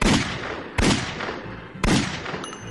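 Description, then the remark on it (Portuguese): Three loud gunshots, fired into a man's chest in a large café in Pernambuco, ring out one after another at uneven intervals, each sharp crack trailing off in a short echoing decay, with no voices present. “ele vai até esse café e dá três tiros no peito de João Pessoa”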